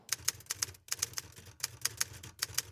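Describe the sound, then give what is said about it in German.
Rapid, uneven keystrokes clack on a mechanical metal Erike typewriter, typed with one finger, fairly crisp, with a couple of brief pauses between bursts and no voices. “mechanische Erike Schreibmaschine aus Metall.”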